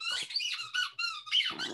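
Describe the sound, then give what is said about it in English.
A dog's squeaky ball toy squeaks repeatedly in quick bursts, loud, with a rapid rhythmic pattern of high-pitched squeals and no talking. “squeaky ball time means it's time for me to to end this story.”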